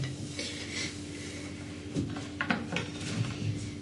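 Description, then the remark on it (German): Used dishes, chosen to match the soup in colour, clink and clatter softly as they're set down, with a few sharper knocks in the second half over a steady hum. No one speaks. “Geschirr passend zum, zum, zum Essen.”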